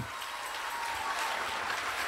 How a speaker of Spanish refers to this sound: el aplauso a ese novio.